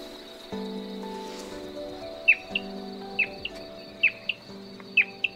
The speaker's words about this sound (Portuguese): começou a tocar o canto do bicudinho numa caixa de som. Aí a gente ficou bem quieta, esperando ele vir.